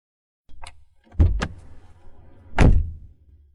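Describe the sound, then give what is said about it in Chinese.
A car door is slammed shut with one heavy, booming thud, preceded by a light click and a pair of sharper knocks as the door is handled. No one speaks. “留下句横话，沈西把车门甩关上，不等叶晨玉，就径直掏出钥匙开门。”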